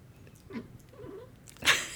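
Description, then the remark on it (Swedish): A female cat sitting in a window, apparently watching a bird, makes soft, odd chirping and chattering sounds, a few short broken calls followed by a sharper, louder burst near the end. “Ja, nu har vi en katt som sitter i fönstret och jag tror att det är så att hon ser en fågel.”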